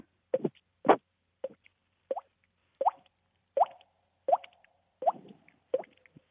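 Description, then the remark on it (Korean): A voice imitates water droplets dripping with a series of about ten crisp mouth plops, spaced roughly evenly every half second, clear with no talking; no real water is used. “아니에요. 입으로 낸 소리예요.”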